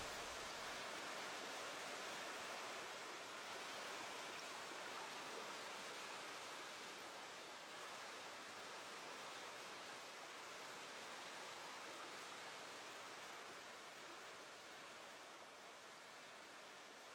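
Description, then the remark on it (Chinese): A waterfall's steady, continuous rush of water, a dense hissing roar with no distinct splashes, gradually growing quieter as it recedes into a distant background. No voices. “水的声音越来越小”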